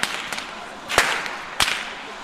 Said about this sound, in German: Da steht auch der Fastnachtsbaum in der Mitte und hier sind gerade hauptsächlich Kinder und Jugendliche, die im Dunkeln mit Peitschen knallen und im Hintergrund klingen diese Glocken wahnsinnig laut.